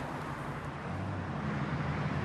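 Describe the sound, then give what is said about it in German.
Steady, continuous rumble of a car driving along a road, with a low engine drone and broad road noise holding at an even level throughout, no voices. “Und das Auto kennt ja den Weg.”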